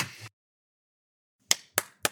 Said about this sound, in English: Okay, clap, clap, restart.